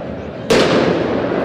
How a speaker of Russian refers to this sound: Вот и питерские болельщики используют пиротехнику.